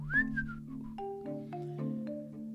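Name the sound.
cheerful whistling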